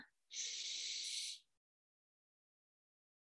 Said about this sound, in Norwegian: Pust inn gjennom nese.